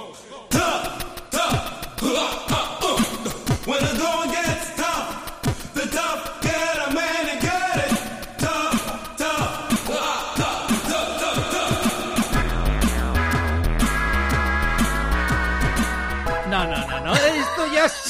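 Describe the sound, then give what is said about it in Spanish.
An offbeat, experimental cover of a pop song plays loud and dense, a sung vocal over busy layered instruments, with a heavy, booming bass line kicking in for the final stretch. “A ver, ¿qué os parece este experimento musical que suena así?”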